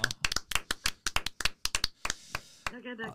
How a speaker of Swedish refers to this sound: applåd där